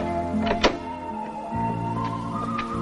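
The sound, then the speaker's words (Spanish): A young man gets up and opens a bedroom door: a sharp latch click followed by a drawn-out, squeaky creak of the hinges, moderately loud, with no one talking. “El chico se levanta y abre la puerta de la habitación.”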